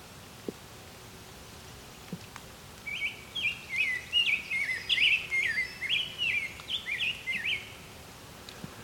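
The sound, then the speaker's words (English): A brown-headed cowbird calls with a quick run of bright, warbling chirps lasting several seconds, fairly clear over a soft outdoor background hiss. “a brown-headed cowbird here somewhere.”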